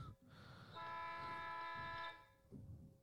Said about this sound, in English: Anyway, I can't wait to go through D- DC and see and just hear bus horns,